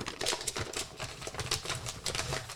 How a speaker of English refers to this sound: I'm sure everyone's gonna love the paper wrinkling.